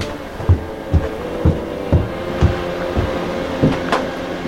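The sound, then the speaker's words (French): Noisy machinery in the fairly modern projection booth of the Eden cinema in La Ciotat: a steady mechanical hum with regular clunking thumps about twice a second, running on without any voices. “Alors c'est un peu bruyant, hein.”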